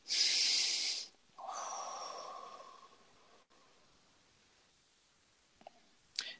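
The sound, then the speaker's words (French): A single deep breath taken as part of a guided affirmation exercise: a loud, hissy inhale for about a second, a short pause, then a longer, softer, lower whooshing exhale fading out, followed by quiet with a small click at the end. “Alors, on va faire une affirmation, deux, une respiration.”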